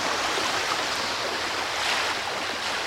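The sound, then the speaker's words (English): A steady, full rush of ocean surf, a continuous broad hiss and roar of water with no distinct breaking swells, fairly loud and unbroken throughout, with no voices. “Now let's bring in the ocean.”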